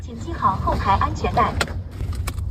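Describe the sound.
Steady low engine and road rumble from inside a fully autonomous, driverless car moving in normal city traffic in Shenzhen, China, with a voice speaking briefly over it and a few sharp clicks near the end.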